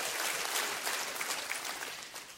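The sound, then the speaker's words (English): An audience claps and cheers in a steady, dense wash of applause that carries on without a break, at a church service giving thanks to God. “We just ought to have some cheer here today. Come on, some cheer in the house.”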